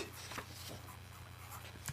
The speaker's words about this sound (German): Guck mal, ich muss hier in meinem Kalender nur eine Seite umblättern. Da ist ja dann die Seite für Folge 32.